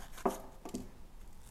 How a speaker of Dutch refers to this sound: Ik snij de witte randjes ook weg in de paprika. Eigenlijk nobody cares, maar toch doe ik het. Ik weet niet waarom. doe de paprika in, eh, had ik in tweeën gedaan en nu doe ik ze in vier.